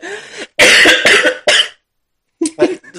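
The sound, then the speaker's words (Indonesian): A person coughs several times in loud, harsh bursts, a quick cluster of hacking coughs, a brief pause, then a few more rougher coughs. “tularan batuk nek awake kon iki.”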